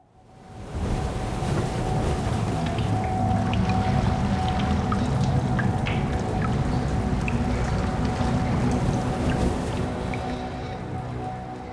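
A steady, dense wash of rain with scattered drips from the wall of a cave, over a low rumbling surf-like bed of water noise from a gray beach. It holds at a constant loudness throughout, with no voices.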